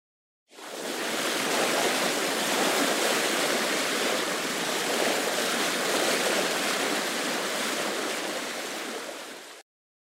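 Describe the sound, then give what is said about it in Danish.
A steady, dense rush of ocean water at sea as a fishing boat sails out, like waves washing continuously, fading in at the start and cutting off near the end, with no voices. “og inden længe så var de begyndt at sejle ud på havet med den her fiskekutter.”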